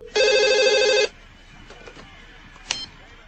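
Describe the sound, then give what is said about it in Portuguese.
A landline telephone rings once in a scene from the film Todo Mundo em Pânico, a loud buzzing electronic trill lasting about a second, followed by quiet room noise and a faint click. “Tem, a cena é sensacional, que até hoje eu sinto vontade de pegar um telefone fixo só pra atender falando, e aí?”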